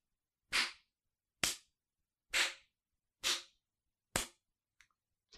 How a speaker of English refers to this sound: That's the sound. that's the sound of the world's most like you fucked up golf clap ever.